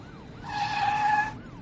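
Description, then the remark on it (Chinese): A shrill tire screech as a van fleeing a police car brakes hard and drifts into a narrow side road at a fork, leaving two scorched skid marks: one sustained high-pitched squeal lasting about a second, swelling loud and then cutting off, with no voices. “一阵刺耳的刹车声。这面包车竟然做出了一个完美的漂移，冲进了一条小路，只留下路口两条焦黑的刹车漂移痕迹。”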